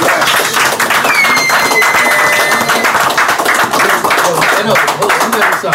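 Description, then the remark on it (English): A crowd claps and cheers loudly and continuously, dense applause with scattered whoops and a few whistles rising over the din for the whole stretch. “Let's make some noise for that guy.”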